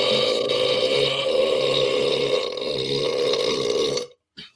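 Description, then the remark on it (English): One long, loud burp rumbles on for about four seconds with a rich, throaty tone, ending abruptly and followed by a short exhale-like sound. “Nope, that was an impressive burp.”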